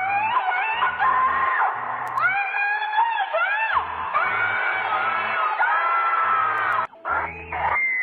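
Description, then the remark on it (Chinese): A person screams and yells loudly in long, drawn-out, wavering cries, the pitch sliding up and down, broken by a few short pauses, with no clear words, late at night in Ji'an, Jiangxi, China. “哎呀，这两天看新闻啊，架不住被一个夜半叫声给惊吓到了，非常的刺激。你们听听。”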